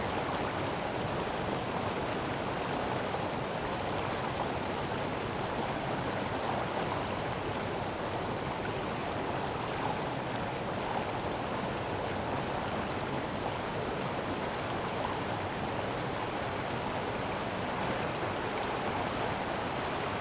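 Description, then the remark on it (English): Heavy, torrential rain pours down steadily, a dense, continuous hiss of water with no pauses and no voices, loud throughout. “It is torrential, and we run.”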